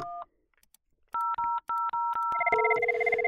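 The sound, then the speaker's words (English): An older IP communicator phone running on a Windows 10 computer dials a call to another phone on the same computer: a short beep, then a quick series of four keypad tones, followed by a steady, overlapping ringback tone. Clear, with no talking. “So, as an example, I can set up a call from one phone to the other.”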